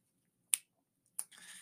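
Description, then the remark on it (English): Two sharp, bright finger snaps about half a second apart, the second followed by a soft rustling hiss; otherwise quiet, with no talking. “I gotta snap my fingers thinking about it.”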